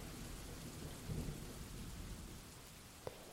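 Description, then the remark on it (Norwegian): Steady, heavy rain hisses throughout while low thunder rumbles underneath, swelling slightly near the middle, and a sharp crack cuts through just before the end. No one speaks. “Eh, lyn kan skje inni en sky eller mellom skyer, eller mellom en sky og bakken.”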